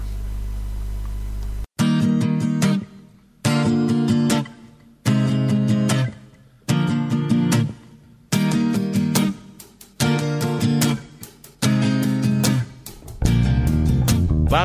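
A slow, six-minute Celtic ballad plays clearly, its warm, full instrumental phrases swelling and easing back in a steady, unhurried pulse of repeated strokes, after a brief low hum at the start.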